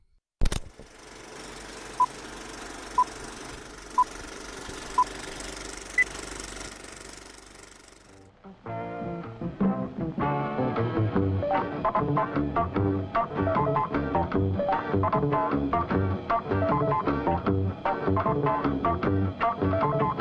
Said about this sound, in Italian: Ma prima la sigla.